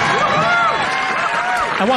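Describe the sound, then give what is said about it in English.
A large crowd cheers and applauds loudly and steadily for about two seconds at a political speech mentioning racism, sexism, anti-Semitism, homophobia and transphobia in the country, many voices overlapping in a dense, sustained roar of shouts and whoops. “why are people applauding that?”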